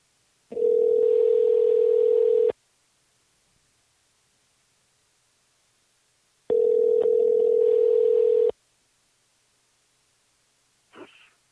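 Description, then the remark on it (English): A telephone dial tone sounds in two steady, mid-pitched bursts of about two seconds each, with a hissy edge and a long silence between them, followed by a brief faint blip, as a dropped call is redialed. “Hold on, let me let me call Tom again here.”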